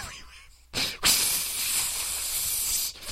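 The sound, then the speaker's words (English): A voice imitates a pepper spray hiss: a short breathy burst, then a long, loud, sharp spraying hiss that holds steady for about two seconds before cutting off. “They'll, they'll probably let that hover right in the middle of him, and then he he opens his mouth and just pepper spray.”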